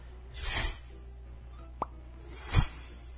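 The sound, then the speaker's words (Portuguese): A voice softly imitates a noiseless kind of firework: a breathy whoosh, a small popping whistle, then another airy burst with a low thump, all gentle with no talking. “Eu tenho é pavor é os, de fogos de artifício. É os sem barulhos, os, os, sem barulhos, né?”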